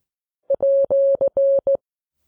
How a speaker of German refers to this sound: Ja, das ist ein Morsezeichen, ne? oder ist das mehr? Nee, das ist ein Morsezeichen. Das ist, ja. das ist der Klammeraffe im Morsealphabet.